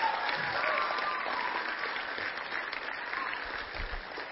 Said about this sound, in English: Give him one more good hand clap of praise before you're seated.